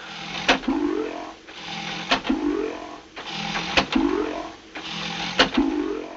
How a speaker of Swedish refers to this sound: Och vi får då den här långa, långa, helt tysta scenen där det enda som hörs är ljudet av pumpen.